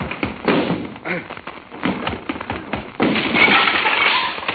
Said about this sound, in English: Stand back so I can crash down this door.